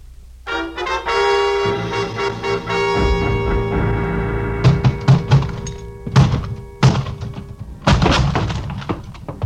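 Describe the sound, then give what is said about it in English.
A locked closet door being forced: a series of loud, irregular thumps and cracking bangs against a wooden door, over a sustained, droning musical tone that holds steady underneath. “The lock on the closet door gave up before I did, but only because it was older by several years.”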